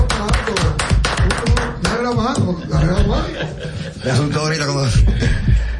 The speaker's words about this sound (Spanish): Don Eddie Toledo, un aplauso para él.